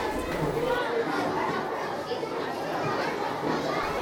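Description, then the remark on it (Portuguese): A steady murmur of many young voices chattering at once, a dense babble of students talking over each other in a school classroom with no single voice standing out. “O burburinho dos alunos é cessado quando entra em sala o professor.”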